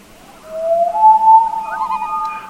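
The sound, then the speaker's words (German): A common loon calls with a long, mournful wail that slides upward and holds steady, joined near the end by a thinner, higher tone, heard alone over a faint background hiss. “Vogel der Woche: Eistaucher”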